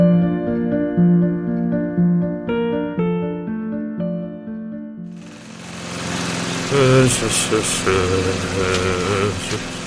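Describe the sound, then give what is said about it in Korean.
Partway through, a lawn mower engine roars to life and keeps running as a loud, steady, rattling drone while someone mows the lawn, following a stretch of quieter tonal sounds. “이게 뭐야? 놀지도 못하고 잔디만 깎고.”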